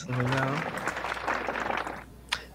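A short burst of scattered clapping rises right after a brief vocal sound, holds for a second or so at moderate loudness, then tapers off, with a couple of sharper knocks near the end.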